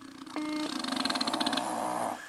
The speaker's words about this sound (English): He hit him so hard he's snoring. Jesus. Holy fuck. That's weird. You get hit in the head so hard he's snoring.